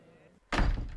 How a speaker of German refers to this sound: Nun ist Thomas in seiner Wohnung und hat die Tür zugemacht.